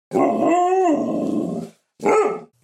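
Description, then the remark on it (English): A male dog gives two loud barks with no talking: the first long and drawn out, wavering almost into a howl, then a short, sharp second bark after a brief pause. “Turn your dog's life around and make him or her a happy camper. Ain't that right, boy?”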